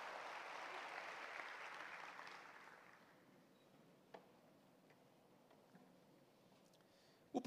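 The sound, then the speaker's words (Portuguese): An audience applauds in a dense, steady burst of clapping that lasts about three seconds and then fades away, leaving near-silence broken by a few faint clicks. “Dê um aplauso bem bonito e tome seu assento.”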